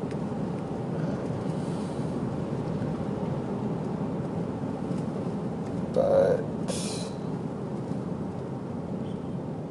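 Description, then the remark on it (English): A steady, continuous low rumble of a car engine and tyres on the road fills the interior, with a brief spoken word and a short sharper sound partway through. “Oh, I guess because I'm driving trying to do two things at once.”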